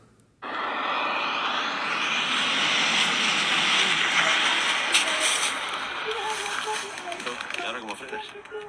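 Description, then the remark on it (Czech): A speed skier rushes past at 248.22 km/h, Radim Palán's Czech record run at the World Championship in Var, France, making a loud, steady roar of wind and rushing air that starts abruptly and holds for several seconds, with faint voices emerging toward the end. “slyšeli, jak to vypadá, když někdo jede rychlostí 248,22 km za hodinu na lyžích.”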